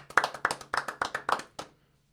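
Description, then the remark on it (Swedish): A short burst of hand clapping given as applause for South Korea, about ten sharp, bright claps in a quick, slightly uneven rhythm lasting under two seconds, then it stops into silence. No one talks over it. “En applåd för Sydkorea för deras ja, fina...”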